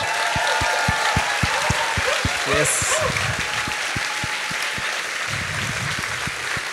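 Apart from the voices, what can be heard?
audience applause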